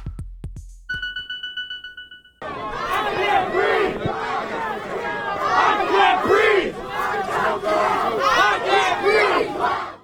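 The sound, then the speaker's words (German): A large protest crowd in the streets of Minneapolis, Minnesota, USA, on 28 May 2020 shouts and chants in loud, overlapping waves, voices rising and falling continuously, preceded by a brief electronic tone and a few sharp knocks. “Im Hintergrund hören wir Aufnahmen von Unicorn Riot aus Minneapolis im Bundesstaat Minnesota in den USA”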